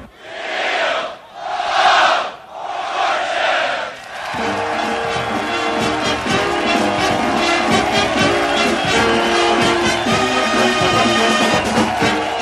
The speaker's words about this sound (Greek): Το πλήθος που ακούτε να φωνάζει Wheel of Fortune είναι εκατοντάδες ναύτες, πιλότοι και τεχνικό προσωπικό του αεροπλανοφόρου Eisenhower. Γιατί το 1995 γυρίστηκε στο κατάστρωμά του ένα από τα επεισόδια του αμερικανικού τηλεπαιχνιδιού.